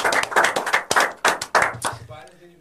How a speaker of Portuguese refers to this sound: Isso aí. Salva de palmas.